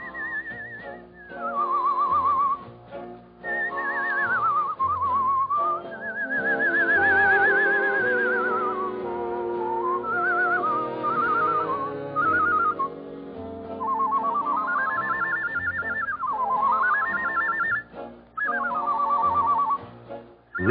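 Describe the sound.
A performer whistles a sweet, warbling melody imitating birdsong, with birdlike trills and swooping slides, carried clearly and steadily over a soft orchestral accompaniment for about twenty seconds.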